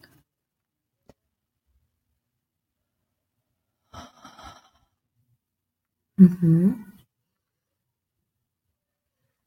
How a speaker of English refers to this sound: I feel like I often yawn when I release emotions and now I just yawned and some of this energy was just automatically released.